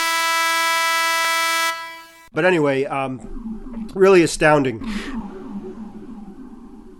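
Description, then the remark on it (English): A loud, steady siren blares for about two seconds, then cuts off abruptly, and a man starts talking right after. “I don't know if you heard that the siren going by.”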